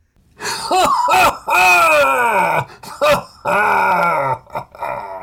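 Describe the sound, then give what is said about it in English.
A voice imitates a dragon's deep, booming laugh echoing off the walls of a cave: several loud, growling bursts that sweep downward in pitch, separated by short breaths, without other talk. “The question felt reasonable to her, but the dragon coughed and lifted its head to laugh.”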